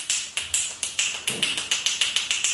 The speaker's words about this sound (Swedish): Det här är alltså världsrekordet för att klappa händerna flest gånger. Alltså fy fan vad hjärndött! På en minut.